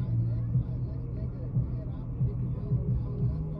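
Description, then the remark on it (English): A car with about ten people in it rolls by blasting music, its heavy bass thumping in a steady beat over a low engine rumble, with muffled voices mixed into the noise. “Bumping, dude, it's a car with like ten people in it.”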